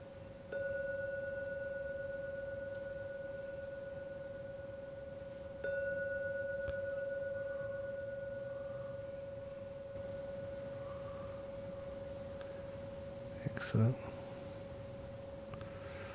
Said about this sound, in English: I'm now going to ring the bell three times. When the bell finishes ringing for the third time, please come out from the meditation.